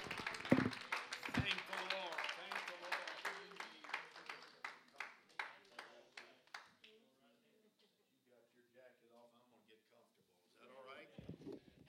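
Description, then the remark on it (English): An audience claps hands in a steady, rhythmic beat for several seconds to praise the Lord, loud, with voices mixed in; the clapping stops and quieter voices continue. “Would you clap your hands and give the Lord praise today?”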